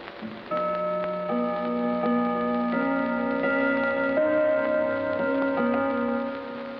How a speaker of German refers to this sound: Deutscher Gong, Halbstundenschlag. Potsdamer Gong, Halbstundenschlag.